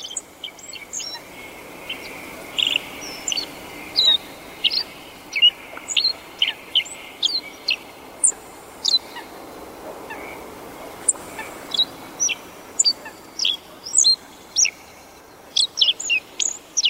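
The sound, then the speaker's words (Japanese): A small songbird sings a black-faced bunting's song in repeated short, bright phrases of chirps and trills, clear, spaced a second or two apart over a soft outdoor background with no talking, around the equinox when day and night are of equal length. “この鳴き方は大きな宇宙の営みの影響を受けてのことそう思うと小さな青地の鳴き声が壮大に聞こえます”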